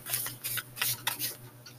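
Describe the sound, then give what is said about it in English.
Cards from a deck being shuffled, a quick run of crisp, papery riffles and flicks in uneven bursts. The sound is fairly soft, with no voices. “And then I just find it so satisfying to hear the, the noise of the, the paper or the decks of cards.”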